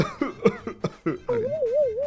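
A rapid burst of about five harsh coughs from a radio presenter with a slight cold, then a long wavering vocal tone that rises and falls like a quavering hum.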